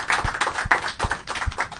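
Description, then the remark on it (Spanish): An audience at an event applauds the first guest, a dense, steady patter of many hands clapping at once with no voices over it, holding a fairly even loudness throughout. “ya yo creo que eh, eh, es tiempo de darle una, un fuerte aplauso a nuestro primer invitado”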